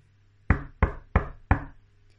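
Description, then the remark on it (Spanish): Four firm knocks on a wooden door in a steady, evenly spaced rhythm, solid, each with a short hollow ring, followed by quiet; Little Red Riding Hood knocking at the grandmother's door in a dramatized telling of the tale. “¡Tira de la aldabilla, que caerá la tarabilla! La puerta se abre.”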